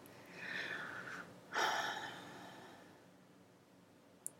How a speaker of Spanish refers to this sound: Una respiración profunda. Otra vez. Inhala. Mantén y suelta lento.